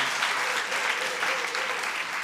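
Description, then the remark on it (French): A church audience applauding: many hands clapping together in a dense, steady wash of sound that holds at an even, fairly loud level throughout the couple of seconds. “Est-ce qu'on peut l'applaudir, l'encourager vraiment?”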